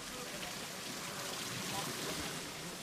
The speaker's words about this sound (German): so romantisch begonnen wie diese, mit einem plätschernden Brunnen im Hintergrund. Und dann könnt ihr euch schon vorstellen, dass wir vielleicht nicht in Berlin sind, ja. sondern was könnte das für ein Brunnen sein? Wir hören nochmal rein.